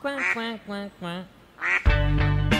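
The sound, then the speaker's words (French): Several ducks by a pond quack in quick nasal bursts, four or five calls in a row, ending in a louder, harsher burst of overlapping quacks. “Je me suis assise à côté de la mare pour assister à la construction. Quand il est revenu habillé comme un bricoleur, on l'a regardé, les canards et moi.”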